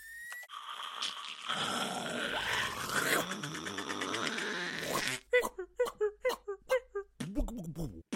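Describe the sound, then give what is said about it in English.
A voice imitates the sounds of wrapping a parcel using only the mouth: a long rustling, crinkly hiss for several seconds, then a rapid series of short, sharp rips and squeaks, fairly loud. “Our Foley's free range and freshly picked. We only use our mouths.”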